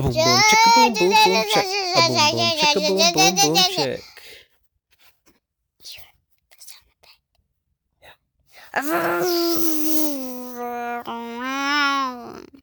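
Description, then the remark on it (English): A fairly loud voice mimics Mousy's car driving home: rhythmic vocal beats first, then after a quiet pause a long, wavering engine-like drone that rises and falls in pitch. “That's the sound of Mousy driving home.”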